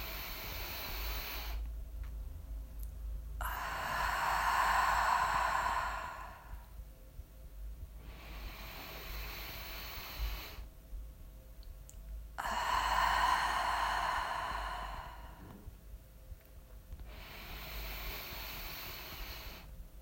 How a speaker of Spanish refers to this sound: Vamos a empezar por hacer cuatro respiraciones profundas por la nariz y por la boca. Vamos a ello.